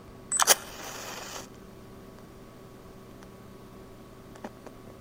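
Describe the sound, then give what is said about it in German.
A quick rattle and scrape of a matchbox as someone lights a fire, followed by about a second of soft hissing, then near silence with only faint background noise. “Zündet einer ein Feuer an, raschelt mit der Zündholzschachtel herum.”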